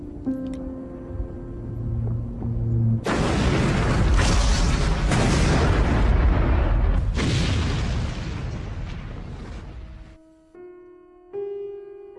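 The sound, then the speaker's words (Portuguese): A ship at sea blows up in a massive explosion after a few sustained musical tones, its deep roar rumbling and echoing for several seconds before fading back into quiet held notes. No one speaks. “No meio dos ecos da explosão, 1900 mergulhou no mar na companhia do seu único lar, o Cruz Virginia.”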